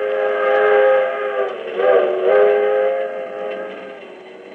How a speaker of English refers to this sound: This is the story of an overnight train trip on the 20th Century Limited from Chicago to New York.